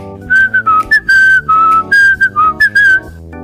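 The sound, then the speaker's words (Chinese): Someone whistles a short, bouncy tune with the mouth, a string of clear, bright notes in quick bursts, some held slightly longer, with a light musical backing underneath. “whistle 还有一个意思是吹口哨。你会不会吹口哨啊？”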